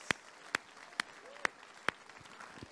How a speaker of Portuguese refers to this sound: Ele é bom, meu irmão. Ele merece esse aplauso. É para ele.